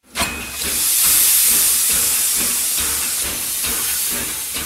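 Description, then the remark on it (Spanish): A steam engine hisses loudly and steadily, a dense rush of high-pitched venting with a low mechanical rumble underneath, sustained for several seconds with no voices. “Por ejemplo, podríamos estar delante de una máquina de vapor.”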